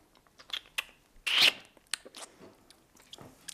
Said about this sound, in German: Und wenn man das Kürbiskernöl kostet, dann muss man ein bisschen schmatzen, dass es im Mund sein Aroma entfaltet.